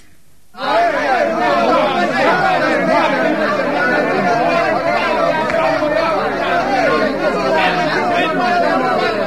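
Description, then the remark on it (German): A dense crowd of many voices shouting and clamoring at once, a loud, continuous wall of agitated babble that starts abruptly and stays steady throughout. “Das nächste Geräusch, wir haben übrigens noch 93, heißt verärgerter Pöbel.”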